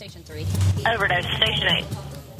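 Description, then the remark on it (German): A telephone in the emergency call dispatch centre of Huntington rings once with a bright electronic warble lasting about a second, heard over a low rumble and faint background murmur. “Bis zu 300 Mal täglich klingeln hier die Telefone.”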